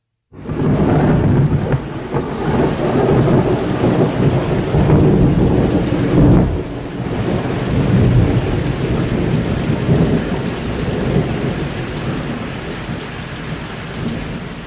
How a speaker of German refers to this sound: Auf dem Weg dorthin allerdings weht ein eisiger Wind. Es hagelt, stürmt, blitzt und donnert.